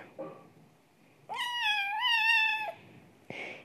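A cat lets out one long, loud, wavering meow, high and drawn out for over a second, while someone tries to clean its bottom, with a brief rustle before it and a short scuffling noise at the end.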